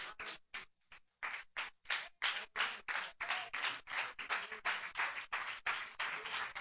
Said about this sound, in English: Let's stand our feet and clap our hands to the Lord right now.